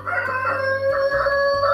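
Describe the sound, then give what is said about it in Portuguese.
The speaker's rooster crows loudly, one sustained, strained cock-a-doodle-doo call filling the short moment with no one talking. “Olha só, meu galos galos resolveu dar sinal de vida.”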